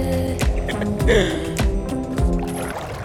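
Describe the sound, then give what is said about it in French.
A wooden boat knocks and creaks as Ulysses and his crew come ashore on the island of Ayaï, with regular soft thumps about every half second over a low, steady hum and faint lapping water. “Ils accostent sur l'île d'Ayaï.”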